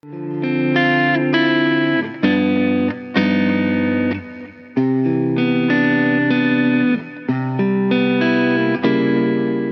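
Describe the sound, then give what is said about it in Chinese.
An electric guitar played through a pick, pickup, effects and an amplifier, recorded with the first of three different microphones, heavily effected with distortion and chorus, plays sustained chords that change every second or so, loud and continuous with no one talking. “接下来咱们就来听一听，用同一支吉他弹同样的东西，整个音色链里面啊，从拨片到拾音器到效果器到音箱都是一模一样的，唯一不同的就是用三支不一样的话筒来拾音，它们录出来的声音能有多大的不同？”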